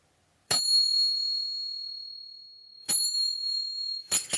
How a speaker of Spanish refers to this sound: En un momento toqué estas pequeñas percusiones turcas que usan las bailarinas en sus danzas, pero yo las toqué de una forma más pausada para dar el tiempo de imaginar.